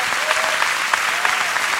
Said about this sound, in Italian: Ma soprattutto continuate questo applauso per voi che avete riempito le serate qui al Teatro Franco Parenti.